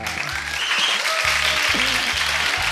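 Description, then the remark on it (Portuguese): A crowd applauds steadily for the country of Italy, a dense wash of clapping filling the whole stretch at a fairly loud, even level, with some low rumbling tones underneath. “Uma salva de palmas para este país maravilhoso chamado Itália.”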